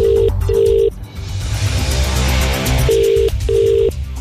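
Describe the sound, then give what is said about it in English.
An unanswered outgoing phone call rings with a steady, repeating ringback tone, two short beeps, a pause, then two more, over a low rumbling background hum. “You just texted and you don't answer your phone?”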